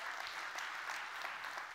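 An audience at a Journey Church morning service claps steadily throughout to welcome those joining online, a dense wash of many hands applauding together at an even, sustained level with no voices standing out.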